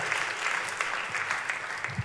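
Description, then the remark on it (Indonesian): A church audience at a Christmas service claps steadily for God, a dense wash of many hands applauding together at a fairly even level, with no pause in the clapping. “Tepuk tangannya pula yang paling meriah buat Tuhan kita.”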